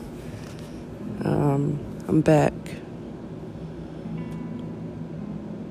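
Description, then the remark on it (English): A steady low mechanical hum of an air conditioner running in an apartment in the middle of March fills the background throughout while a person speaks briefly over it. “Again, I'm so sorry for the background noise. It's my air conditioner, and uh, yeah, why do I have an air conditioner on in the middle of March?”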